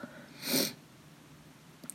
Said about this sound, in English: I'm like sniffing over here um, a little bit. it also doesn't help that it's like super cold and snowing here.